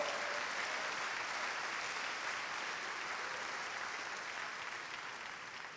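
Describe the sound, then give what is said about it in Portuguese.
A church audience applauds in praise of God in a steady, dense wash of clapping that holds fairly loud for several seconds, then slowly tapers off toward the end, with no voices standing out. “Glórias a Deus, aplaudam ao Senhor.”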